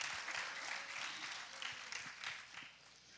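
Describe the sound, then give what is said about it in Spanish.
An audience applauds itself after singing: many hands clap in a dense, steady wash of sound that holds a fairly even level for about three seconds, with slight swells and dips. “Desen un aplauso a ustedes mismos.”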